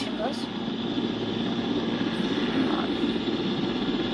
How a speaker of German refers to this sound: Ja, also hier, ich fliege gerade mit dem Helikopter, aber ihr hört ja auch nicht.